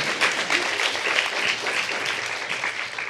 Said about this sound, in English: and that applause. Oh, thank you.